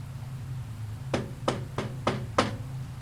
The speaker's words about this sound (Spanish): Alguien tocó a la puerta y nos sacó de repente de las historias.